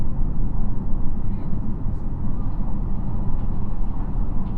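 Steady, loud low-pitched rumble of a JR Shikoku 2700 series diesel railcar, the Nanpu No. 20 running from Kotohira to Okayama, heard from inside as it approaches Marugame, a continuous droning engine and wheel noise with no breaks, filling the whole passage evenly.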